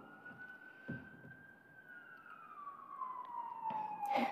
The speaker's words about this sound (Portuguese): Um, tá passando um carro da polícia. Sempre passa a polícia